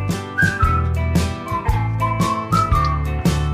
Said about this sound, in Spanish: Y empieza a silbar.